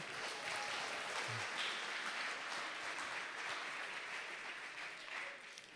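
A crowd applauds steadily, many hands clapping in a dense, even wash of noise that holds for several seconds before easing slightly toward the end, with no voices standing out.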